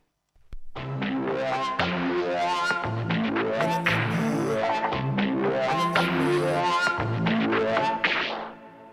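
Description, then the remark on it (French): A rap song's instrumental intro plays at steady, full volume, with layered melodic synth chords over a low, pulsing bass and no vocals yet. “Donc tout de suite, on s'écoute ça, … de …”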